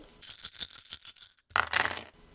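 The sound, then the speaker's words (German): Dice rattle in a quick series of bright clicks for over a second, then after a brief pause a louder clattering burst as they tumble and settle, landing on three 20s. No one speaks. “Dann würfeln wir noch einmal.”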